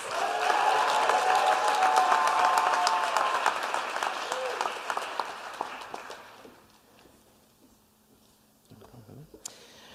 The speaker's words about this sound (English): All right, now you can clap for all these folks.